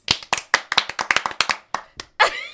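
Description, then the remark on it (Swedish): Hands clapping in applause: a quick run of sharp, crisp claps at a fairly steady pace, about a dozen in two seconds, ending in a brief, louder smeared burst. No one speaks. “Stora applåder alltså.”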